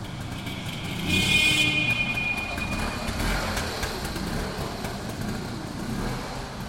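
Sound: motor scooter engine running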